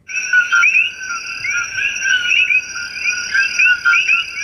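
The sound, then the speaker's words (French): A dense, loud chorus of tropical coqui frogs, their sharp two-note "co-qui" whistles repeating rapidly and overlapping over a steady high-pitched nocturnal drone, with no talking. “Et puis vous avez aussi une grenouille tropicale appelée la grenouille coquille dont le chant est très très puissant.”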